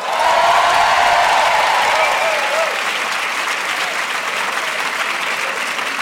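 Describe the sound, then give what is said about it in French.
A large concert audience at the Casino de Paris applauds and cheers loudly in a dense, sustained roar, with shrill whistles near the start before the clapping settles slightly and carries on steadily. “Est-ce que vous pourriez faire du bruit pour France Inter”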